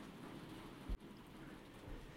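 Heavy rain pours steadily outside and grows stronger, a dense continuous hiss with a brief louder thump near the middle, and no voices.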